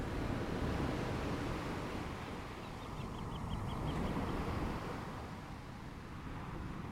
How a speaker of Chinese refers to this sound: 后来我才知道，海浪有着每分钟大约拍打十二下的频率，而这个频率恰好是一个沉睡着人的呼吸频率。